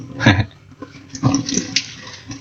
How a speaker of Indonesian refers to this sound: Kalau kamu lagi dengerin podcast ini dan mendengar suara-suara seperti air atau suara eh, piring-piring uh, piring -piring yang hampir pecah, itu artinya kamu lagi dengerin aku yang lagi cuci piring sekaligus cerita